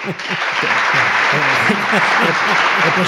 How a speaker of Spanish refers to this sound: he, puesto, aplausos, he puesto aplausos y todo ahí.